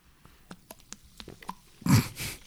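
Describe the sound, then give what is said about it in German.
Someone drinks carbonated mineral water: a scatter of small crisp fizzing clicks and pops, then two loud, low gulping swallows near the end, with no talking. “Ich trinke nämlich Wasser mit Kohlensäure.”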